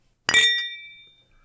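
A single bright clink of a drinking glass touched against a second water glass in a toast, sharp at first and then ringing out with clear sustained tones that fade over about a second. Fairly loud, with no talking.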